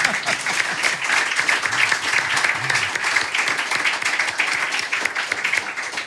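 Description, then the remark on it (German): Sustained audience applause, a dense, steady patter of many hands clapping at an even loudness for several seconds, with no voices standing out above it. “Schau mal, das ist dein Applaus.”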